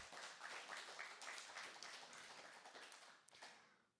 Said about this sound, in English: Thank you. I hope that wasn't just because I said, please clap.